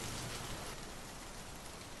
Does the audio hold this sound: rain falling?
yes